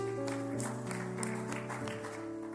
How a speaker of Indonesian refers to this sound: Yang setuju dengan saya boleh tepuk tangan bagi Tuhan Yesus.